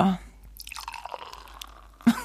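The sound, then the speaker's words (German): A steady pour of Piccolo Prosecco from a screw-cap bottle into the first glass, gurgling and faintly fizzy for about a second and a half, with brief voices just before and after. “jetzt kommt das erste so. Glas.”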